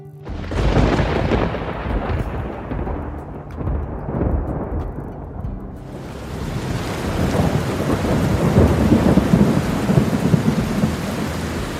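Deep rolling thunder rumbles loudly for several seconds, then gives way to a steady downpour of rain hissing across everything, with low rumbles still churning underneath. No voices.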